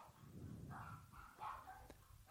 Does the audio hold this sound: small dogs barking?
yes